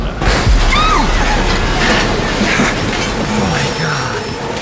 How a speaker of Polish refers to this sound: Wypadliśmy z torów.